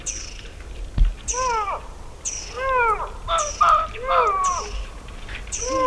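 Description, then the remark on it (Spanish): A female lynx meows at night after approaching the recordists face to face, giving about five or six loud, harsh, wavering calls that rise and fall in pitch, spaced roughly a second apart, with a brief thump near the start. “Una lincesa se acercó a nosotros, nos miró, lo sé por oído, no, era de noche, cara a cara y empezó a maullar.”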